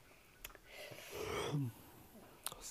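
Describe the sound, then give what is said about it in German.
A single drawn-out yawn, fairly quiet: a long breathy inhale that swells, then ends in a short low vocal groan, with a couple of faint clicks around it. “Alter, ich muss so oft gähnen, ich klappe ja auch gleich weg.”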